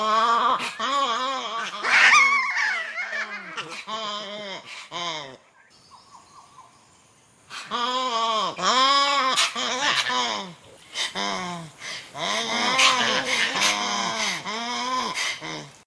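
A fossa, an animal from Madagascar, lets out loud, harsh, wavering screams in repeated bursts, intense, with a short quieter pause midway before the yowling calls resume in rapid succession.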